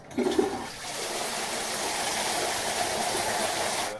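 Three identical toilets in separate stalls of a WC are flushed at the same moment, opening with a sharp clunk and gurgle, then a steady loud rush of water that roars on without a break. No voices are heard.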